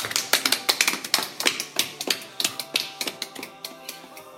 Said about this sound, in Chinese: 说的非常好，鼓掌。